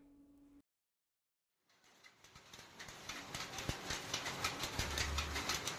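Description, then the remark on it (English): After a short silence, an automatic power loom of the kind used in smaller sari-producing enterprises in India clatters into motion, its loud mechanical rattle building into a fast, steady rhythm of repeated clacks. “That's the sound of an automatic power loom, just one of many that dominate smaller enterprises producing saris in India.”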